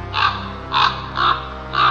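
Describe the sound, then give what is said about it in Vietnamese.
A black crow caws four times in a steady rhythm as it flies off, each harsh, raspy call loud and roughly half a second long, with brief gaps between them and no voices present. “Một con quả đen từ đâu xả xuống bên cái xác Mổ vào cặp mắt đang mở trượt lên của mụ vận Nổ bụng một cái Rồi tung cánh bay đi Cất tiếng kêu hoang hoang”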